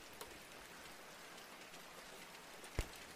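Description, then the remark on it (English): Soft, steady rain patters outside a window, a quiet continuous hiss with a couple of sharper drip taps, one near the start and a louder one near the end. No one speaks. “You try to focus on the gentle sounds of the rain outside your window.”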